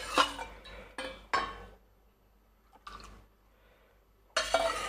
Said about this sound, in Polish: Dobra, nalewamy naszej zupy e, do miseczki.